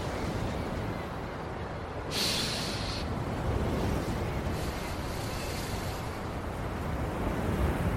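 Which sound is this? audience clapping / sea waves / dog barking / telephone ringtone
sea waves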